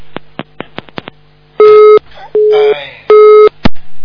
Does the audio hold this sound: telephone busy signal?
yes